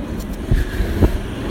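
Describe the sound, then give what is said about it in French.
A postal service moped with a loud exhaust rumbles past, its low engine drone steady with a couple of brief surges, with no voices. “On peut éventuellement avoir euh, la poste et sa mobilette.”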